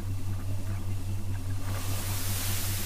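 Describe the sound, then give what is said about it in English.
A steady, deep metallic hum drones continuously at an even pitch from a metal sphere as its metal surface cools, with a soft hiss swelling behind it partway through. No voices are heard. “Now that the crowd has calmed, I can hear a humming sound coming from the sphere.”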